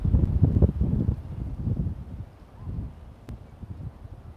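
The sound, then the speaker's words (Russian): Gusty wind buffets the microphone with a low, uneven rumble, strongest at the start and easing off, with a brief sharp tick near the end and no voices. “Ветер.”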